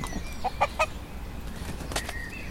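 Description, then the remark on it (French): A four-year-old rooster weighing 3 kg clucks in short bursts, three quick notes early on then a couple more later, against a quiet outdoor background with no talking. “Et puis, il montre bien qu'il est le coq.”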